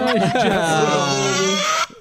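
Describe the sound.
An adult voice mimics a crying baby with a single loud, wavering wail held for almost two seconds before cutting off abruptly.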